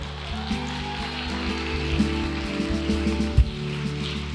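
Steady applause from an audience, a dense, crackling patter of many hands clapping at an even level for several seconds, with a low electrical hum underneath and no talking.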